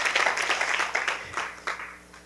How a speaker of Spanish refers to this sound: Gloria a Dios. Que si le da un aplauso al Señor. Amén. Gloria al Señor.